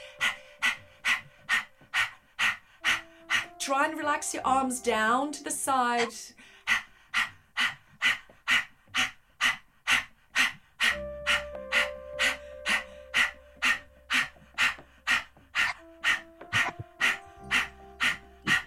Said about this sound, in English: really sharp breathing keep your tongue out it's like an acting acting exercise you know just keep your tongue out lose tongue and pant